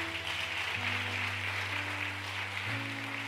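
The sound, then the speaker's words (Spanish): A steady wash of loud applause fills the whole clip, while sustained low keyboard chords hold underneath and shift twice. No one speaks. “Dale un aplauso fuerte.”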